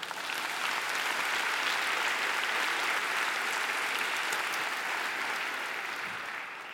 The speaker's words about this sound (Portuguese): Quem acredita nisso, dê um aplauso ao Senhor.